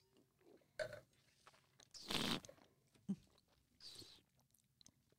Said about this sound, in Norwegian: Jeg spruta litt rødvin utover um, studiobordet her, faktisk, når jeg skulle prøve å slurpe. Det gikk bra. Jeg må øve i helga, det merker jeg.